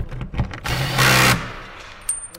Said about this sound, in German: Zielsicher positioniert er die Leiste an der Wand, prüft noch einmal kurz die richtige Position und dann schraubt er mit einem lauten Knarren den Chip oben an die Wand.